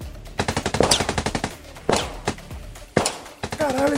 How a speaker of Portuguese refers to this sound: eles se viram com uma espécie de fuzil e eles começam a atirar na direção do Vetol